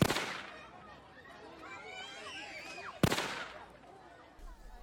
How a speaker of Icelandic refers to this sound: Líkt og í flugeldum eða ónýtu púströri. Hvað var þetta eiginlega?